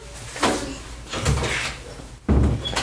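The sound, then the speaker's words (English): A door being shut by an adult after a two-year-old could not close it, with a few bumps and rattles as it is pushed and then a solid thud as it closes, with no talking. “It's okay if you can't get the door closed.”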